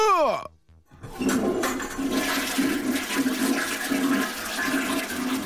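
A toilet flushes loudly, a rushing gush of water that swirls and gurgles steadily for several seconds after a brief pause following a short tonal sweep at the start.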